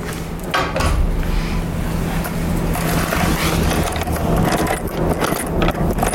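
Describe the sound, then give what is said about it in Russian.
A metal door with an Italian Sekirema bolt lock, which works on gears rather than springs, is opened: soft metallic clicks and rattling of the bolt over a steady background hiss, fairly quiet, with no one speaking. “А вы попробуйте, как она открывается.”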